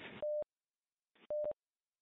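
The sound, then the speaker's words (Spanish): A steady, loud electronic interference tone from someone making a bridge on the radio link beeps twice, each burst preceded by a short hiss of radio static, with silence between the pairs. “bueno, alguien está por ahí haciendo un puente, por favor, si, si, puede, si puede quitarlo, ¿no?”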